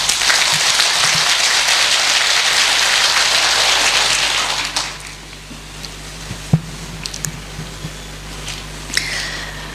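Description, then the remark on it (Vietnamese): An audience at a talk bursts into loud, dense applause, a steady roar of many hands clapping for about four seconds before it cuts away, leaving a quiet stretch with a few scattered claps and small clicks. “nếu các anh chị thấy rằng là điều này đó là cái mà tôi đã làm hoặc nếu chưa làm đó bây giờ tôi sẽ đang làm hoặc là là là sẽ làm trong tương lai thì các anh chị hãy dâng cao tràng pháo tay thật lớn để thể hiện sự quyết tâm”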